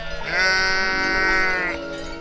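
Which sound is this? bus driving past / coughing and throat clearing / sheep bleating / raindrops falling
sheep bleating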